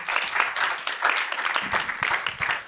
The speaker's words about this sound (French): Merci de l'applaudir.